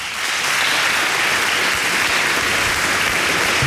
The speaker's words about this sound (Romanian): încă o dată aplauze